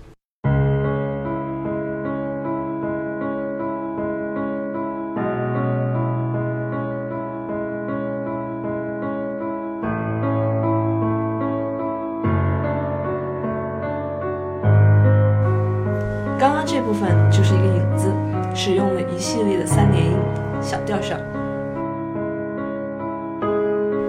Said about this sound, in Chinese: 啊，不管怎么样，先让我们来听听曲子吧，我们都讲累了。 现在大家听到的是月光的第一乐章。